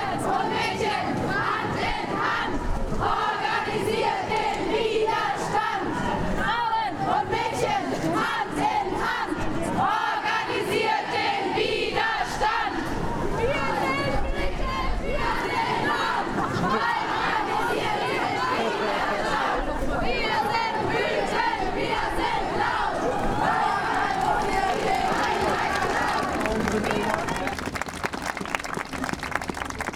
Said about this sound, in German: Hallo zusammen. Wir sind hier zusammen auf der Demonstration gemeinsam gegen sexualisierte Gewalt.